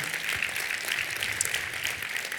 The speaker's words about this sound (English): All right, I, they always applaud for her. They always applaud, you know.